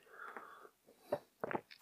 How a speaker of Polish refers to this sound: łyk kawy